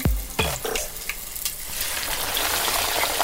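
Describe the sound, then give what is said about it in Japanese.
A pork cutlet (tonkatsu) drops into hot oil heated on an IH induction cooking heater with a couple of sharp splashy thumps, then settles into a steady, dense crackling sizzle that continues without talk. “IHで美味しいとんかつを揚げよう！”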